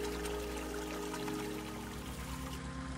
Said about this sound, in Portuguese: Se você está num lugar como este aqui na natureza, saboreie, saboreie a visão da água correndo, saboreie o som da água batendo na pedra